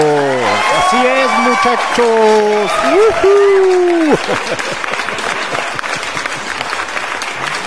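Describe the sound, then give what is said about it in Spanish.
An audience applauds steadily throughout while a man speaks over it, drawing out his words; after he stops, the dense clapping continues on its own, loud and even. “aplauso.”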